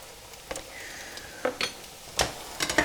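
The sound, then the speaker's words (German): A steady sizzle of mixed vegetables briefly frying in a pan, broken by several sharp clinks and scrapes from stirring, with no voices. “Und das Gemüse kommt jetzt komplett gemischt in die Pfanne. Ich lasse das jetzt einen kleinen Moment kurz anbraten”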